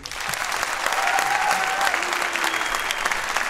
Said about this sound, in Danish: Vi er jo en podcast, så I skal give et bifald.